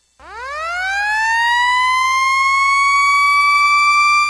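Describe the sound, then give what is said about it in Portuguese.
A loud siren winds up from a low pitch, rising steadily and then holding a sustained, piercing tone, heard alone without any talking. “Sirenes rotativas, digitais e audiovisuais, campainhas de prato e sinalizadores visuais de advertência.”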